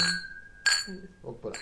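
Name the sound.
glasses clinking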